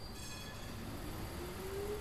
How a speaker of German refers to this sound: Das Gebäude ist an einer stark befahrenen Straße. Man hört also auch im Haus ab und zu ein Tram vorbeifahren.